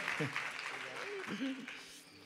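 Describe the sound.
An audience applauds with a steady, dense wash of clapping, while a voice speaks and calls out over the top of it throughout.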